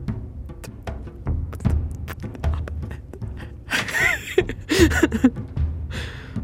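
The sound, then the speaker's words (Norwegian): Someone imitates muffled, stifled breathing with a hand over the mouth, trying not to breathe too loudly: short breathy gasps and pants pressed back, growing louder near the middle over low background noise. “En sånn klassisk sånn der eh, actionfilm som prøver å ikke puste for høyt, så liksom legge en hånd over munnen mm.”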